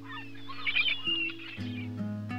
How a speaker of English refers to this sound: Hear the soothing cries of seagulls.